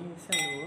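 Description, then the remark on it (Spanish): Wine glasses clink together once in a toast, leaving a bright, sustained ringing tone that hangs in the air while a voice murmurs underneath. “Mire qué belleza cómo suena esta copa.”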